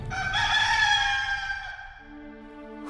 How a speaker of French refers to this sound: Le chant du coq monta d'une métairie.